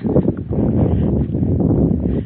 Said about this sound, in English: And the, it's beginning to get quite windy now, so I hope you can hear this.